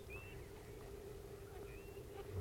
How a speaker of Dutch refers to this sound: Goudpleviertje. Oh. Je hoort er ook een roepen.